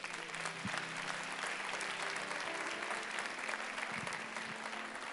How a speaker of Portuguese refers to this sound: Você podia aplaudir o Senhor por isso.